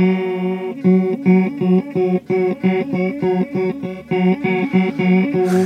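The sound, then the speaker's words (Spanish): A bright, sustained instrumental tone plays a steady, repeating pattern of short notes, its sound thickened and shimmering from a chorus effect, with no voices present. “Lo que viene siendo el chorus.”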